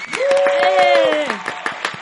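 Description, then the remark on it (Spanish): An audience of the show La Cotorrisa claps to welcome a guest in a steady patter of sharp, loud hand claps, while a voice holds a long sustained cheer over them that slides downward before fading. “Un aplauso. Gracias por aplauso.”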